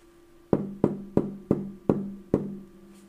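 Six firm knocks on a wooden door in a fairly steady rhythm, each with a short hollow ring, the last one coming after a slightly longer pause. No voices.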